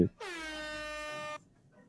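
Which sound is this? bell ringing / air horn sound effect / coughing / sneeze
air horn sound effect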